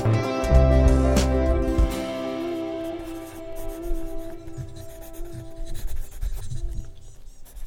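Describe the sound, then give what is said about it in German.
A woman writes with a pen in her notebook diary in a garden: quick, irregular, fairly soft scratching strokes on paper, following a short opening of sustained tones that fade out as the writing continues. “Sie ist sicher schon im Garten ein Aperöl am Trinken und schreibt ihr das lustige Notiztagebüchli.”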